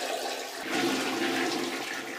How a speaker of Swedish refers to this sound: Här spolar du.